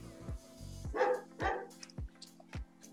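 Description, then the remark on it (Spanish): A pet dog barks several times in quick, uneven bursts, loud, with short pauses between the barks and a low steady hum underneath. “mi perro se escucha.”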